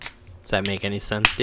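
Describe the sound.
A sharp, hissing crack of a beer can popping open, one brief burst at the start, followed by a person talking.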